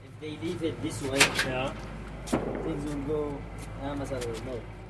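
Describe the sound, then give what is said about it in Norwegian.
A Houthi activist opens the door to the Ansar Allah office in Sanaa with a brief latch click and knock, while voices talk through the whole moment over a low background hum. “åpner døra til Ansar Allahs kontor i Sanaa.”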